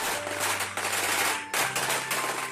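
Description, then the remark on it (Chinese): A string of firecrackers crackles loudly and continuously, a dense rapid rattle of sharp pops with a brief dip in the middle before the barrage resumes. “而小年兽正想要赶快的离开这条街时，又听到了噼里啪啦的声响。”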